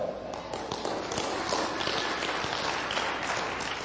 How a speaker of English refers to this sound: Go ahead and clap.